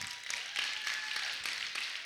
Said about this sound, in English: You guys ready for it? Clap your hands if you're ready.